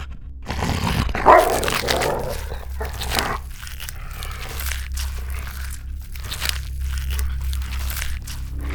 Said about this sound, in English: Wolf? Sweet, a wolf. Wow, settle down.